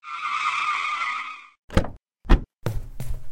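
A car brakes to a halt with a long, high, wavering tire squeal, then two short heavy thumps and a stretch of low rumbling noise. No one speaks.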